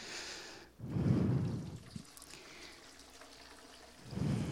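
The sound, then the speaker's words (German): Water pours and splashes into a leaking bucket that cannot hold the water, with a steady trickling wash, swelling into two heavier gushes near the start and end. Fairly loud, with no voices. “Wozu sollte man einen Eimer mit Wasser füllen, wenn er das Wasser gar nicht halten kann?”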